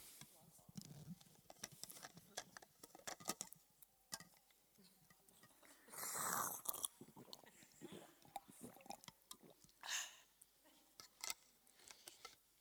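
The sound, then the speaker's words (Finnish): Someone sips water, with small mouth and bottle clicks, a louder gulping swallow partway through and another shorter one later, over faint background rustling. “mä hörppään vettä tässä välissä.”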